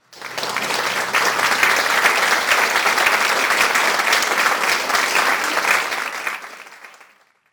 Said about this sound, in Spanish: Un aplauso de felicidades para La Voz del Fanático.